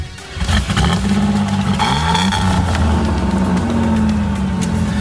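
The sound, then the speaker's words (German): A car engine kicks in and runs loud, its low hum climbing in pitch as the vehicle revs and pulls away, holding a steady rumble to the end with no voices. “Aber wir können jetzt so, wie es hier steht, können wir jetzt losfahren.”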